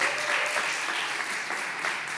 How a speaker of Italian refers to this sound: e diamo il benvenuto con un applauso